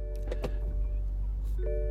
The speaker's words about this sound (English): Okay, I'm moving this thing. I'm moving this car.